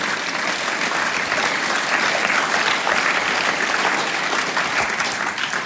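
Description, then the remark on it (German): Sustained audience applause given to God, a dense, steady wash of many hands clapping at an even loudness for several seconds, with no speech over it. “Hey, geben wir doch Gott Applaus, dass wir sein Licht sein dürfen.”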